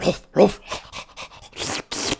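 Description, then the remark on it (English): An enormous female dog, brought inside a house, pants heavily, quick breathy huffs repeating in an uneven rhythm with a few louder, rougher breaths mixed in. No one speaks. “Oh, you brought that beast in here”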